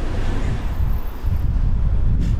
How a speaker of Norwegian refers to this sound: Alright, nå er det kanskje litt eh, vind her i mikrofonen, men det får bare gå.